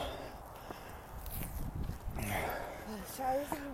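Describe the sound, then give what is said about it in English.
Steady footsteps crunch along outdoors at a walking pace as someone walks up a big hill, with a voice briefly heard near the end. “We're walking up a big hill.”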